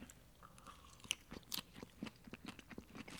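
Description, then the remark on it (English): Repeated crunching and chewing of a crisp salad made of leftover vegetables and olives, a steady irregular rhythm of wet crunches and bites with a few sharper snaps, no talking. “Let's dig in. Either way, I'm starving.”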